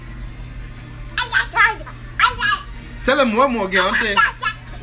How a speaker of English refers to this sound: As you can hear my son in the background.